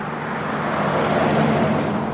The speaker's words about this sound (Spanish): Brincándose el retén, salió disparado por la carretera los oficiales persiguieron al carro, que iba como alma que lleva el diablo.